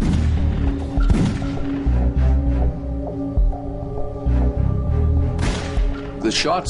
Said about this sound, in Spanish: Los sonidos de los disparos fueron recogidos por un micrófono en la cabina de mandos. Al comparar el sonido de cada disparo, los investigadores determinan si se dispararon en la cabina de mandos o de los pasajeros.